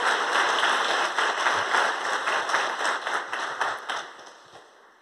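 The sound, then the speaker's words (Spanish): A church audience bursts into sustained applause for the Lord, many hands clapping in a dense, steady roar that gradually fades toward the end. No one speaks over it. “Si usted lo cree, déle un aplauso fuerte al Señor.”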